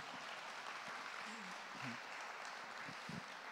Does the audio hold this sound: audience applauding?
yes